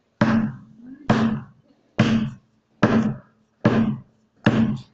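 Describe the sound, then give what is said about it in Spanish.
Six heavy hammer blows land one after another at a steady, unhurried pace, each a loud thud with a short ringing decay, separated by brief silences. “escucharon martillazo tras martillazo tras martillazo”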